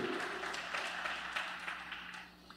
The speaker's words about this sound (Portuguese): Você pode dar uma salva de palmas para a palavra de Deus? Bem forte para ele, igreja.